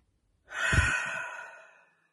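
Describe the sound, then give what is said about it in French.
A single deep, audible breath, drawn in and slowly let out like a sigh, fairly loud, lasting over a second with no talking. “On va prendre une respiration ensemble et ensuite on passe aux questions.”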